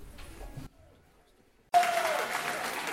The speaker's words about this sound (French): Alors on l'a dit, le public a participé de nombreuses fois euh, à cette soirée en se manifestant par des applaudissements, mais également par d'autres manifestations de joie. On peut en écouter quelques-unes.